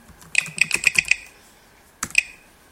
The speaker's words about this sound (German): Wireless Network Text bearbeiten, da gebe ich jetzt mein Kennwort ein.